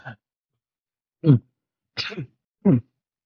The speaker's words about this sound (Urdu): مجھے بیچ میں کھانسی آ گئی میں پوز نہیں کروں گا